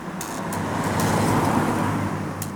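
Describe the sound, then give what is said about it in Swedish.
A Ford Transit van drives along toward Värmdö outside Stockholm, with a steady engine rumble and broad road noise, holding a constant level throughout with a few faint high clicks, and no voices. “Erik Westerberg placeras i en låda som bärs ner till en Ford Transit-buss”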